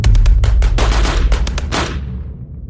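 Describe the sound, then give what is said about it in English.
A rapid burst of machine gun fire from an armed vehicle, a dozen or so sharp shots in quick irregular succession, loud and booming, then trailing off into a fading echo. “I heard a shot from one of the vehicles, and I guess that it came from an MG 42.”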